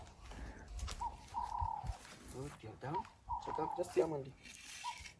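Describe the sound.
Lions growl low and rumbling, a few rough bursts, as they are fed with a stick, mixed in with people talking excitedly.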